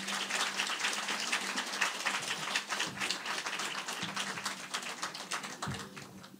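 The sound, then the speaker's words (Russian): An audience applauds steadily for about six seconds, a dense, bright patter of many hands clapping at an even loudness, with a low steady hum underneath and no one speaking, welcoming panel participants Anton Krasovsky and Maxim Shevchenko to a televised dialogue about Victory Day. “Антон Красовский, Максим Шевченко, ваши аплодисменты. Аплодисменты.”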